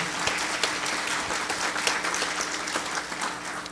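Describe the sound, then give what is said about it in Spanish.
An audience applauds a Gospel reading steadily, dense overlapping claps forming a continuous, fairly loud patter with no voices on top. “Regálele un aplauso a este santo evangelio, por favor.”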